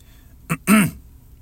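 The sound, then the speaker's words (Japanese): A voice imitates throat clearing twice, mimicking a person who constantly cleared their throat while standing reading books in a shop: a short, sharp grunt followed by a longer, voiced 'ahem'. It is moderately loud. “で、立ち読みするのは全然いいんですけど、なんか、すごい咳払いをね してて、常に。”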